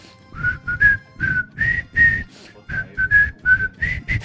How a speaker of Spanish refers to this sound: Le, le silbamos el cumpleaños feliz.